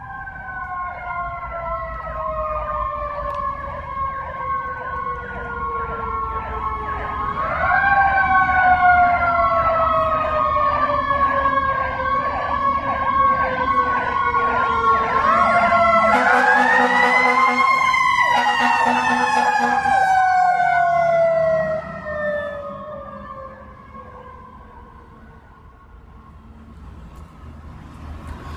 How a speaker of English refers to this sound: I can't believe there are more fire engines. So, you're going to have to wait another second. I'll take a sip of coffee and let you experience this one. as sort of a terrifying ASMR experience.